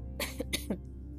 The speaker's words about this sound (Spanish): lo siento, perdón, que soy un ser humano y que así como tuve la urgente necesidad de toser en este momento que a lo mejor no es como muy agradable y me disculpo por ello